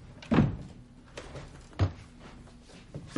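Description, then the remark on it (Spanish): Oso shuts a door with a solid, low thump near the start, followed by a second softer knock and faint rattling, with no talking. “Oso cierra la puerta y van hacia la mesa.”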